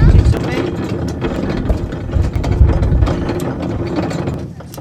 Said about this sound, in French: Vous, faites quoi avec cet appareil là sur le tracteur On écrase le raisin, monsieur. C'est-à-dire que vous le ramassez dans le champ Voilà, et vous l'écrasez immédiatement. tout à fait, monsieur.